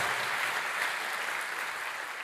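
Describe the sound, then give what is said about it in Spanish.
An audience applauds the Lord steadily, a dense, even wash of many hands clapping at once with no pauses, holding a constant moderate loudness throughout. “Dele fuerte ese aplauso al Señor. Fuerte ese aplauso al que vive.”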